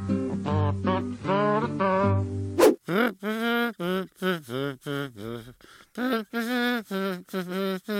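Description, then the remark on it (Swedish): A short burst of recorded music gives way to a person imitating a kazoo with a buzzy whistle-hum, the sound associated with the rooster Allan-a-Dale from the animated Robin Hood. The melody comes in fairly loud phrases separated by brief pauses. “Du är bra på att göra det där kazoo-liknande visselnyn-hybridljudet som vi förknippar med den tecknade Robin Hood-tuppen Allan i dalen.”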